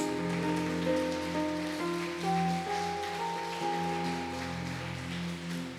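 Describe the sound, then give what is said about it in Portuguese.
A crowd applauds steadily for several seconds in praise of Jesus, a dense, continuous patter of clapping that stays even throughout, with sustained keyboard chords holding underneath. “Uma saúde de palmas a Jesus.”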